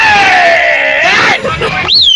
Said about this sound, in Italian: Vai, vai, vai, vai, vai, date sfogo al vostro urlo, dai.